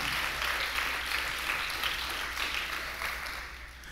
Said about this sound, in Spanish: Da un aplauso fuerte al Rey de Reyes y al Señor. Amén.